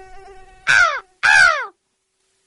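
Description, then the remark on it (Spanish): Two loud, harsh crow caws ring out, one right after the other, with the start of a third cut off at the end; a faint steady hum sits underneath before the calls. “¿Qué noticias traes, cuervo?”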